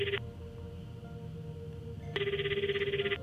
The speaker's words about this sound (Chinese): 就在这时候，电话铃声响起了。